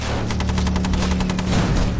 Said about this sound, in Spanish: Disparaban y los proyectiles invadían toda la carretera. Era como una bola de bolos. Si te cogía, te destrozaba. Los intensos disparos alemanes son devastadores.